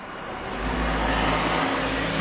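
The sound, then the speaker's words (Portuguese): Steady street traffic noise heard from a balcony, with a broad rushing hiss and a low engine rumble that swells slightly midway, like cars moving along a road, with no voices. “Tipo, será que vocês conseguem ouvir mais barulho da rua porque eu estou na varanda?”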